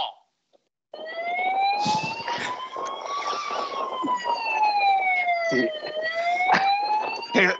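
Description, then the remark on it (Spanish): An ambulance siren wails steadily after a brief pause, its tone slowly rising then falling then climbing again, loud, over a bed of street noise and scattered bumps. “Tengo claro que a este chaval se le ha tirado la sirena.”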